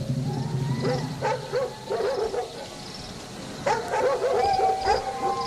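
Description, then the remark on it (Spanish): Several dogs bark and yip in bursts at night, some calls overlapping, with a steady background hum beneath them and no one speaking. “Al dirigir la vista hacia donde ladraban los perros, vio a la muerte, que bailaba el son de una música.”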